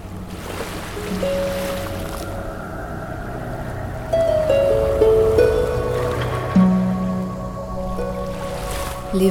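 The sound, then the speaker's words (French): A steady roar of surf and churning water as waves crash violently on the shore, with heavier surges swelling up partway through, while low drawn-out creaks or groans ring over the wash. No voices. “vagues frappaient violemment le rivage. Le vent soufflait, la pluie était battante.”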